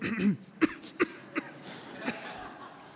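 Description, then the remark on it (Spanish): A series of about four short, dry coughs, moderately loud, spaced irregularly over a few seconds with brief pauses between them. “O cuando te dicen, si tienes síntomas de tos, y tú escuchas eso y...”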